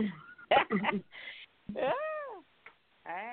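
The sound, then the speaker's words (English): A person's voice imitates a cat, giving a long, wavering meow with a warbling vibrato, followed by the start of a second meow. Breathy vocal noises come just before. “I left that little extra vibrato there for you.”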